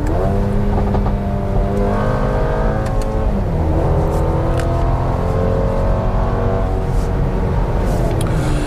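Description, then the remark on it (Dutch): A car engine revs hard and climbs through the gears, its steady roar punctuated by occasional sharp exhaust pops and crackles. Loud, with no one speaking. “En hij klappert lekker uitlaat.”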